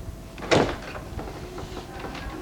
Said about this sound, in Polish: Tak jeszcze może tylko teraz drzwi otworzę na chwilę.